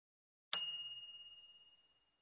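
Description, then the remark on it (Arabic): A single bright ding from a microwave oven finishing its cycle, struck once with a clear ringing tone that slowly fades over about two seconds, heard alone in quiet. “الصوت الصادر من فرن الميكروويف عند انتهاء الطهي وهذا الصوت يحاكى هكذا جين”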